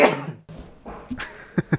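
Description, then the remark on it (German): A single sharp sneeze bursts out, followed by a few short breathy sounds and quick sniffs, with no talking. “Gesundheit.”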